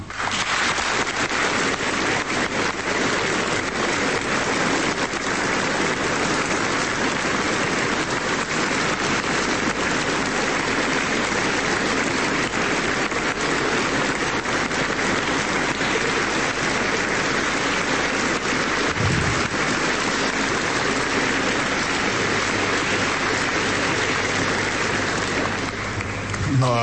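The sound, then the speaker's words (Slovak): A large audience applauds steadily for almost half a minute in honour of the Virgin Mary and their mothers, a dense, even wash of clapping that holds its loudness throughout with no voices standing out. “Zazneli už mnohé aplauzy k našim menám a ja by som možno tak požiadal o jeden aplaus k Márii a k našim mamám.”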